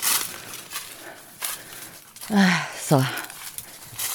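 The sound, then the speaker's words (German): Footsteps push through dense vines along a small animal trail, with scattered rustling and crunching steps, while a man briefly speaks partway through. “bin ich durch die Ranken durch.”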